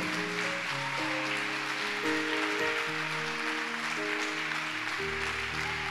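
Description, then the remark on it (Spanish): An audience applauds steadily during a church sermon, a dense, continuous patter of clapping layered over sustained keyboard or organ chords that shift every second or so, with no voices heard. “A ver, un aplauso más despierto.”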